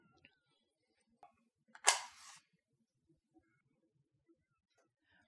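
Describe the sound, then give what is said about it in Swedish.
A match is struck up close to light a candle, a short bright scratch and flare lasting about half a second, with a few faint clicks before it and quiet otherwise. “Vi tänder ljuset som vi brukar.”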